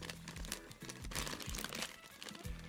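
A bag of curry-flavoured 0-second Chicken Ramen is handled and torn open, with a steady stream of loud crinkling and crackling plastic over almost three seconds and no talking.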